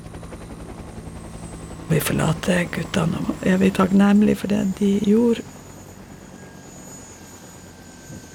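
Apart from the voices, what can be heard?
military helicopter rotor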